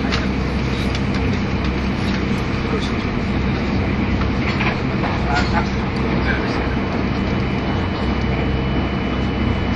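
Steady, loud interior rumble of a 683 series limited express train, the Shirasagi No. 14 running from Toyama to Nagoya, in motion: a dense low roar with faint rhythmic rail clatter and occasional higher squeals over about ten seconds, no clear voices.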